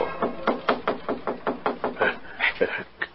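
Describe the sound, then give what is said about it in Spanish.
A rapid run of knocking on a wooden house door: about a dozen quick, evenly spaced raps, moderately loud, with a couple of sharper knocks at the end. “¿Quién será? Mi mujer, yo creo. Ábrele.”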